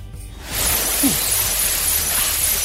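A 10-foot Christmas tree in a radio studio, hung with Virgin Radio ornaments, tinsel and gift cards, is shaken hard: a loud, steady burst of rustling needles and bright glassy jingling begins abruptly and continues without pause, with no voices.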